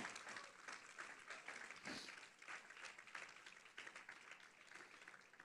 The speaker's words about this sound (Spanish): ¿Le puedes darle el aplauso?